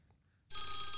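A phone abruptly starts ringing after a brief silence, its bright electronic tone loud, holding steady to the end with no one talking.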